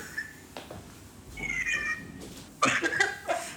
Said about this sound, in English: Uh, is the cat holding you hostage, or? no, I think it's just wants some company, but I can't give it to her right now. Just give me a second. Sure, of course, of course. well, the cat is now part of the episode.